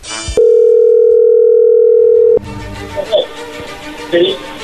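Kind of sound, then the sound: signal or alarm, telephone dial tone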